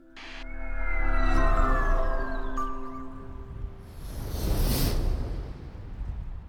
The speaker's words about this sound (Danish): Der er fart på, når luften bliver suget op i næsen. Den skal nemlig hele vejen gennem næsen op forbi næsehulen og ned i dine lunger.